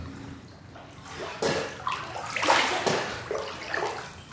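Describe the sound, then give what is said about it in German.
Muffled, churning water sounds swell in irregular surges, recorded underwater while a person holds their breath for about 50 seconds during a breathing challenge, with bursts of sloshing and bubbling that rise and fade over a few seconds, no voices present. “Und absurderweise beginnt meine Atem-Challenge damit, dass ich nicht atmen darf, weil ich unter Wasser bin.”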